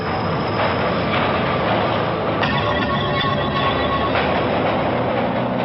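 A New York City subway train rolls along the rails with a loud, steady rumble, and a thin metallic squeal rises briefly in the middle before the clatter carries on. No one speaks.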